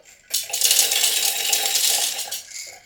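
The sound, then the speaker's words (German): About 70 grams of raw dried soybeans pour into a container in a steady, dense rattling rush lasting about two seconds, a bright clattering patter of many small hard beans, with no voices. “Das sind jetzt 60 Gramm wirklich roh, also getrocknete genau. Sojabohnen.”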